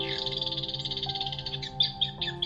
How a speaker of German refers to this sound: Doch dann beginnt das Eichhörnchen, das oben auf einer dicken Kastanie sitzt, laut anzukeckern.